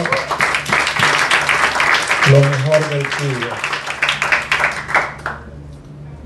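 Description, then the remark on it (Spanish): An audience applauds the Lord loudly for about five seconds, a dense, steady wash of many hands clapping while a voice speaks over it, then the applause quickly fades away. “¿Quiere dar un aplauso al Señor?”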